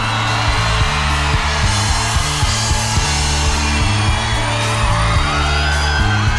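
A crowd claps and cheers loudly and continuously to welcome a performer in, with scattered whoops and yells, while a bass-heavy musical backing plays underneath.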